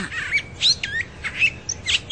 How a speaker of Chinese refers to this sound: 而且它还听到了各种鸟叫的声音。它特别爱听鸟儿们歌唱，有时它会突然跳起来追逐着小鸟，但是大部分的时候，它只是静静的听，内心不断的发出赞叹：“哦，这些鸟儿的声音太美了。”